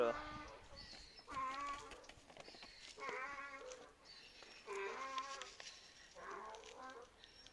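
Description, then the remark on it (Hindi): A donkey brays outdoors on the street in a long series of loud, rasping, see-sawing calls, about five rhythmic bursts close together, with no talking over them. “यहाँ पे नॉर्मली शायद मेरे को नॉर्मली ज़्यादा तो कुत्ते ही दिखते हैं भाई रास्ते पे बट uh, गाढ़ो भी थे जो अभी चिल्लाए उनको I can I don't know the name of there in English I don't know English but मैं बोल सकता हूँ कि यार uh, वो गाढ़ो ही था”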